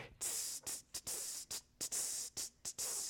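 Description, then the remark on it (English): A voice imitates a ride cymbal with about seven sharp, hissing "tss" bursts in a quick, slightly uneven rhythm, fairly loud with short breaks between them. “The ride cymbal sounds like this, tss, tss, tss, right?”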